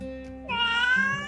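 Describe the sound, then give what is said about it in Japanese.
A single drawn-out cat meow, fairly loud, begins after a short moment of low background hum and holds for most of a second before trailing off. “あやっぱりポニョですかやっぱね魚好きですもんね”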